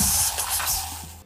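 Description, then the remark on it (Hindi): A steady fizzing hiss with faint crackling bubbles from a freshly opened cold drink, holding for about a second before fading at the end. No one speaks. “बुलबुलों की आवाज आ रही होगी तुम्हें”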